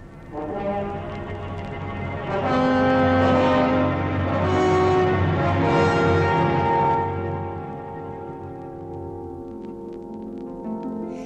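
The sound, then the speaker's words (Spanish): French horns of the brass family calling back and forth in long, mellow, overlapping notes, swelling to a full, steady sound in the middle before easing off, with no voices. “Aquí están los cornos, llamándose unos a otros.”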